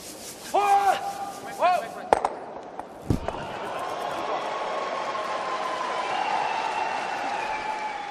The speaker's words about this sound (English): That, my friend, is the sounds of what I might call the sweetheart of the Olympic Games curling.